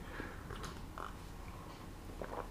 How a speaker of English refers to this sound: So just get a quick sip of coffee.